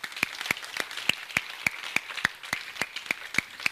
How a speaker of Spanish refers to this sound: dan un fuerte aplauso a Jesús en esta hora.